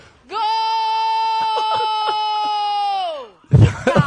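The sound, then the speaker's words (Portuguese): A single loud, sustained scream held steadily for about three seconds before trailing downward, like a drawn-out goal celebration, followed by a brief burst of noisy voices. “Que animalesco isso, velho.”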